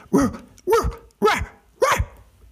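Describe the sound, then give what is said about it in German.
The dog Timmy barks four times in a steady, evenly spaced rhythm, each bark loud and sharp, with brief quiet gaps between them and no voices, while standing in front of a rock that juts from the ground with several spikes. “Plötzlich blieb Timmy laut bellend vor einem Felsen stehen, der mit mehreren Spitzen aus dem Boden ragte.”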